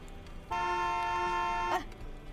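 car horn honking

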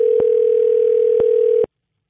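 telephone dialing and ringing

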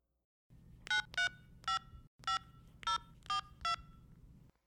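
telephone number being dialed

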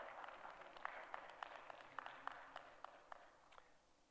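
audience clapping hands

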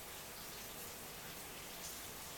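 heavy rain falling

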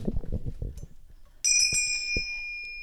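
bell ringing

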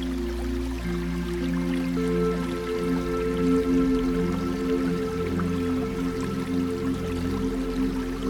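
flowing river water

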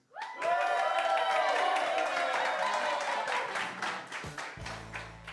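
audience cheering and applauding

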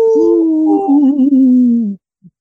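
werewolf howl sound effect

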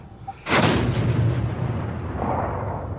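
gunshot

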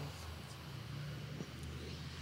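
big truck passing by

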